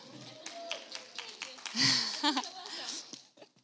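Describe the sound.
A small group claps in a brief, scattered burst of applause lasting a few seconds, fairly quiet, with some murmured voices mixed in, welcoming a guest speaker at a teaching collective gathering.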